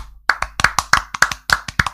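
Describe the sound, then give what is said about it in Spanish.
A short burst of applause for a choripán from the Feria de Solano: about seven crisp, sharp claps in a quick, steady rhythm, starting after a brief pause and running to the end. No voices are heard. “mirá, aplausito”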